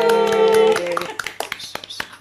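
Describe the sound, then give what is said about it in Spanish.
A sustained, harmonic tone fades out, followed by a short run of sharp, irregular hand claps, a small handful of applause rather than a big crowd, for the Spanish women's national football team winning its first World Cup on 20 August 2023. “aplauso a ellas, más seleccionadas.”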